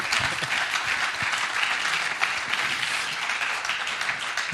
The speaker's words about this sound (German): Dein Applaus.